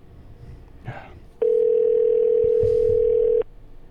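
A single loud ring tone from a phone call, one steady two-second hum heard through the line. It follows a brief faint rustle and then cuts off cleanly.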